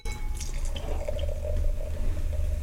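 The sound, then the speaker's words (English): Champagne pours steadily into a glass, a continuous fizzy, splashing trickle with bubbly crackle on top, lasting a few seconds with no talking. “Give me, give me the glass. Yeah. I'll pour it here.”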